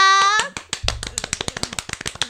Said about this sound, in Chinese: 鼓掌